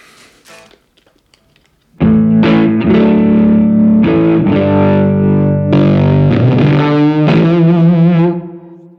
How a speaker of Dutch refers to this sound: staat, staat die amp echt hard? Zou die, zeg maar, als je niet die tube expander erbij zou hebben, zou het dan echt heel hard zijn? Nu? Ja, dan, zou zou dit zijn.